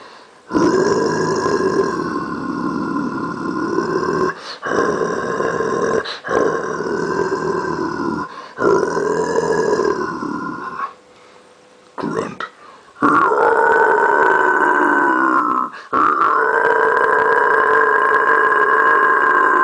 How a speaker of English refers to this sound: three of the non screaming techniques. Growl.